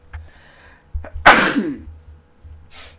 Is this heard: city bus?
no